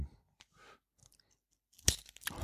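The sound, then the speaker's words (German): Crunchy chewing, a few scattered bites early and then a louder burst of crisp crunching near the end, with no talking. “wie das knuspert.”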